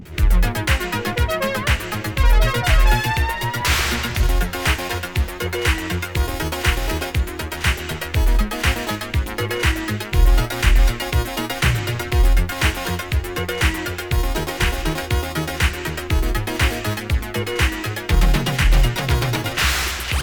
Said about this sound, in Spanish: poquito de sonido disco para ir calentando.